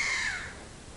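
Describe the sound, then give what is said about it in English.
A caracara, a black bird with a red face, gives one harsh, raspy scream at sunrise that fades away within half a second against a low, steady outdoor background with no one talking. “Bird you can hear in the background, a screaming bird is a caracara.”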